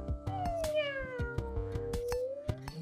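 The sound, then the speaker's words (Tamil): A kitten gives one long, drawn-out meow that slides downward in pitch, heard clearly over a steady, rhythmic percussive beat in the background. “ரெண்டு பேரும் பூனைக்குட்டியும் கிட்ட ஒன்றும் கிட்ட ஒன்றும்”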